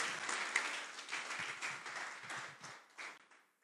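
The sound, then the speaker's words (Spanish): An audience applauds God together, a dense, steady wash of many hands clapping that holds for a few seconds and then tapers off quickly at the end. “Dale un aplauso a Dios. Dale un aplauso.”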